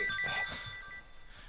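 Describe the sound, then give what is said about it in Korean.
A mobile phone that someone left behind rings with a bright, warbling electronic melody of high repeating tones, fairly quiet, fading slightly toward the end with no one talking. “아이고 이 유경이가 전화를 두고 가는갑네.”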